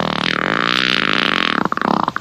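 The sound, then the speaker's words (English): A long, loud, buzzy fart drones steadily for over a second, then breaks into a few quick sputtering bursts at the end, with no talking. “Do you mind if I fart?”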